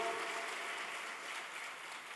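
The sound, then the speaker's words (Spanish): A crowd claps together in a steady, dense wash of applause for the Lord during a sermon, holding at an even level for a couple of seconds, with no voices standing out above it. “Dale un aplauso al Señor, porque Él tiene control de todas las cosas.”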